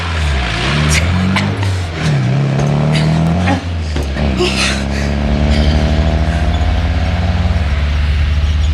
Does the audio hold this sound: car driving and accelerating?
yes